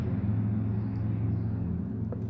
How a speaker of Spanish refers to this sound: Un paréntesis, si escuchan ruido de coches es porque aquí cerca está la calle y pues se ve que hoy todos dijeron, ¿a qué horas van a grabar el retiro para sacar los coches y hacer ruido y interrumpir.